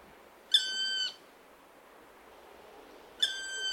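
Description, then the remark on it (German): A black woodpecker gives two drawn-out, plaintive calls about two seconds apart, each a clear, ringing note lasting around half a second, over a soft, steady background hiss. “Oder sagen wir mal, äh, Schwar äh, der Schwarzspecht, der ruft natürlich, ja gut, jetzt sage ich, der ruft typisch, aber du wirst wahrscheinlich sagen, jeder Vogel ruft typisch.”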